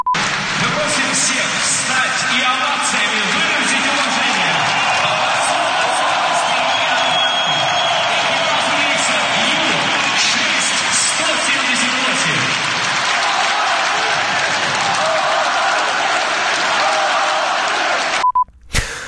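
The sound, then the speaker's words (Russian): A huge stadium crowd at the FC Ural versus Krylya Sovetov football match in Yekaterinburg roars, shouts "Well done!", cheers and applauds continuously at full volume, a dense wall of noise that holds steady before cutting off abruptly at the end. “Весь стадион кричал «Молодцы!».”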